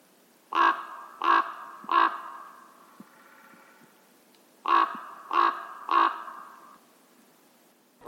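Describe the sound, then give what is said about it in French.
A common raven gives two sets of three harsh, throaty croaks, evenly spaced with a pause between sets, loud against a quiet outdoor background with no talking, on the plain in Moselle. “voilà, le cri du grand corbeau.”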